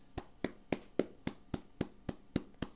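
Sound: one person clapping hands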